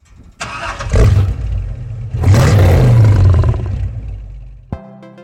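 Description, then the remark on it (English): A car engine cranking to life layered with a lion's roar: two loud, rumbling, snarling surges, ending in a brief steady engine hum. No one speaks. “Now, this is what it sounds like when we layer those two together.”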